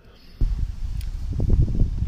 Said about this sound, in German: Ich hoffe, die Windgeräusche im Hintergrund sind nicht allzu ausgeprägt und zu stark.